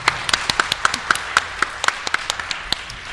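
Scattered applause from a small crowd, a steady patter of sharp, bright claps at moderate loudness, with no one talking over it.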